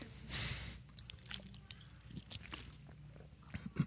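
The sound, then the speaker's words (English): Someone takes a sip of water: a short slurping rush, then quiet swallowing, small wet mouth clicks and a soft breath, with no talking. “And uh, so, some uh, water.”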